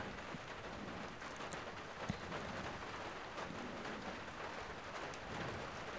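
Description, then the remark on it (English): Steady rain falls outside on a Sunday in Struer, a soft continuous patter and hiss with no voices, fairly quiet and even throughout, with a brief tap or drip standing out near the middle. “I would like to read you a little snippet of a text from Gertrude Stein, wrapping up our week in Struer in the light of a rainy Sunday.”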